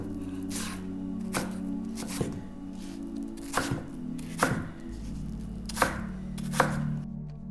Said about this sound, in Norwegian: Jeg starter helt først med å kutte og skrelle eplene.